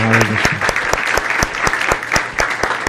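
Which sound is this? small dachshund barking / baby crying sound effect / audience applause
audience applause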